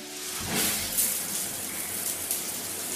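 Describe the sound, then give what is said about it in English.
Running shower water pours steadily in a dense, hissing spray, fairly loud, with small splashy surges and no voices throughout. “Bumble and Bumble Seaweed's invigorating shower ritual feels like an escape.”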